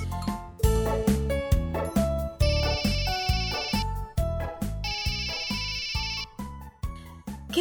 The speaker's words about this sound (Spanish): A Perla le ha estado sonando su celular muchas veces. ¿Qué estará pasando?